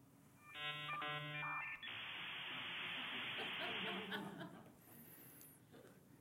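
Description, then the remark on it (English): A dial-up internet modem handshake: a burst of stepped dial and answer tones, then a loud sustained hiss of screeching static that fades out, with faint scattered laughter near the end. “This is the sound of dial up internet.”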